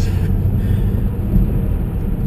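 Steady low rumble of a Mercedes car interior while driving, a continuous engine and road drone filling the cabin with no voices.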